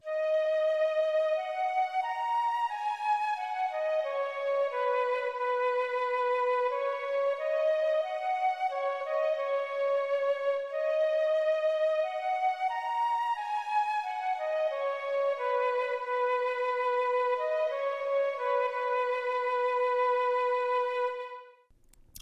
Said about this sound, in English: For, first of all, you can see that the, or you can hear that the flute is the main instrument of the melody, and the strings are playing very faintly below it. But you can still definitely hear them.